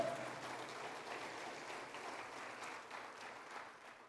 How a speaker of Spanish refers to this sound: Si usted lo cree, se lo da fuerte al Señor, con palmas, en la mano. Amén.